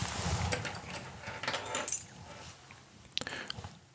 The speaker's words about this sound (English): And then the last uh, 20 minutes can be one pose or uh, two 10 minute poses. And I'll ring my keys to signal that.